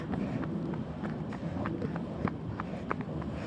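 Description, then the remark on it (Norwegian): Quick running footsteps of a small boy with a backpack running as fast as he can, uphill toward a T-bane (metro) stop, pounding in a steady, rapid rhythm, a string of soft thuds repeating over a continuous low rumble of background noise. “en liten gutt med sekk som springer alt han klarer”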